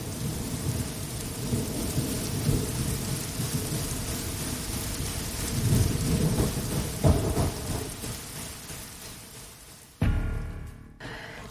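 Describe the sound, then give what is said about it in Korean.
Steady rain hisses throughout while low thunder rumbles and rolls, swelling around the middle, then a sharper, louder crack and rumble bursts in near the end. No voices. “산둥소리, 번개소리, 빗소리”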